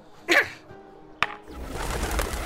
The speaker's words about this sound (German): Ah, Tauben. Ah, so viele Tauben. Sie sind überall.